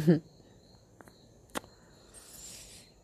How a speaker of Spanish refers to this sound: Y el sonido de los grillos